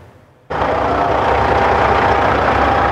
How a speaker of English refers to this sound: Whatever you think about the issue, there's something that feels deeply Canadian about the sound of diesels idling before sunrise on a winter morning.